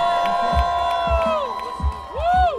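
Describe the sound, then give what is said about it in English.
A crowd cheers loudly at a Hip Hop Hall of Fame celebration in Oakland, with high whoops and whistling shouts rising and falling over a steady roar, punctuated by low thumping beats underneath. “Please make some noise for the one and only”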